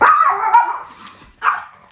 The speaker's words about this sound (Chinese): 这这狗真的，你别叫了，闭嘴